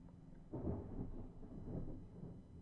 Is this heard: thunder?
yes